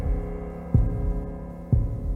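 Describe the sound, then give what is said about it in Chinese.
A heartbeat sound effect: two deep, low thumps about a second apart over a steady droning hum, with no voices. “听，你越走越近的脚步，听所有中国人的心跳和叩问。”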